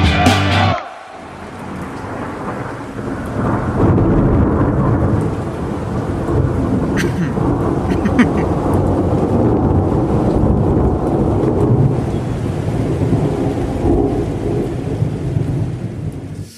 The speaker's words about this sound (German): Das Gewitter und die Blitze ziehen über uns hinweg.